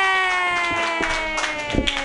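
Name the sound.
audience clapping hands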